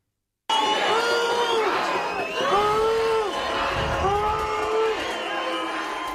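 A large crowd of local residents on Langeland, Denmark, booing and shouting together at a public meeting during a visit by immigration and integration minister Mathias Tesfaye, sustained and loud, with rising and falling jeers and whistles from many voices continuously.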